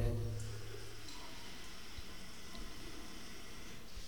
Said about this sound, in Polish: Łazienka, woda,